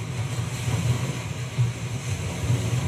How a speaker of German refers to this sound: Eieieiei, jetzt ist das natürlich ein bisschen laut, unsere Brandung. Mach mal ein bisschen leiser an den Lautsprechern.